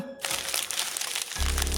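Crinkly rustling of several paper sheets that were slipped in at the edge of a door, handled and read for about a second, followed by a steady low hum that takes over at the end.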